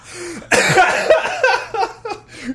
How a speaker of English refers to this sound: sorry for everyone in his ears. I just coughed at you.